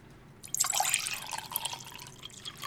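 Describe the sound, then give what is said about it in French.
Beer splashes and gurgles steadily into a glass after a short quiet start, a bright fizzing pour that keeps running with small bubbly spatters until the end. “Je te sers une bière”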